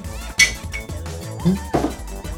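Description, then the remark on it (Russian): Glasses clink together in a toast: one bright, ringing chime, then a fainter follow-up tap, over a low murmur of voices. “Вздрогнем, Ничего. чокаясь.”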